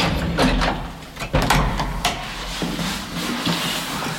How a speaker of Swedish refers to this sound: Brandmännen lyckas baxa upp hissen på plats och dörren går äntligen att öppna igen.